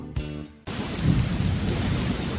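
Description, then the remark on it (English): A brief low rumble of thunder gives way to a dense, steady wash of heavy rain, loud, with deep rolling thunder underneath and no voices. “This time of year, it seems thunderstorms are an everyday occurrence.”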